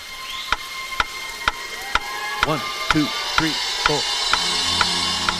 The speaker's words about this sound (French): par exemple, on fait un décompte avec un métronome qu'on appelle un clic dans le métier.